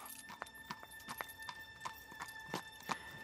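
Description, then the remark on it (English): Pony hooves clip-clop at a steady walking pace as a pony pulls a trap from Mallow in North Cork up along a drive to a big house in summer sunshine, a regular run of crisp knocks, with a faint hum running underneath throughout. “They came down by train from Dublin to Mallow, and there would be a pony and trap waiting there, and out they would come.”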